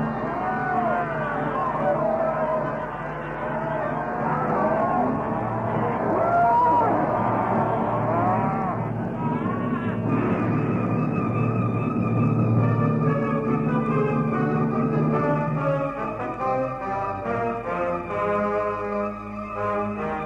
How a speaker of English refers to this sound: Cattle and men everywhere. Cattle tearing about the place with natives in front of them, natives burbling about with cattle ahead.